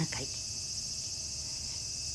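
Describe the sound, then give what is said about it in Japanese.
A dense, steady chorus of cicadas drones continuously with a bright, high-pitched buzz, sustained without pause and fairly loud, with a faint low rumble underneath and no talking, heard in the morning at Lake Biwa just after the rainy season ended, under a clear blue sky. “ようやく梅雨が明けたと思ったら今朝はいきなりセミの大合唱が聞こえてきました”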